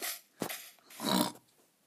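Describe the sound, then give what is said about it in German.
A video game pig grunts in three short, breathy snorts, the last one longer and fuller, moderately loud with brief quiet gaps between them and no talking. “Falls ihr es nicht hört, ich rede mit einem Schwein.”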